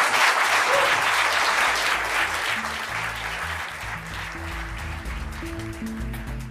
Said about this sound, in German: Und wenn ihr jetzt klatscht, dann geht, dann übernehmen wir das und haben endlich mal einen Applaus am Ende unserer Sendung auch.